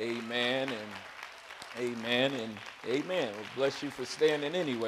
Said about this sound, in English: I do thank God again, though, for my sweet wife tonight. Amen. Let's give her a hand clap.